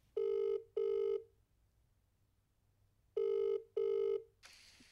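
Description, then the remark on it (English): A man panicking calls someone on his phone: a ringback tone sounds in two pairs of steady electronic beeps, a brief pause between each beep and a longer gap between pairs, clear, followed by a short burst of noise. “Clutching toilet paper against my crotch, I grab my phone, and in the moment of panic, the first person I call”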